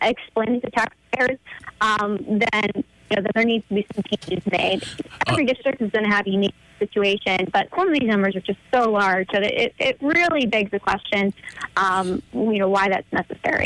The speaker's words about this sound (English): I know I'm, I'm bugging you on a cell phone. You're breaking up a little bit. Are you driving or are you, uh, are you stopped somewhere?